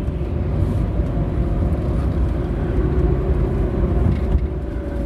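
Steady low rumble of a car driving on a commute to work, heard from inside: a constant droning road noise with a faint engine hum, even in loudness throughout and with no voices.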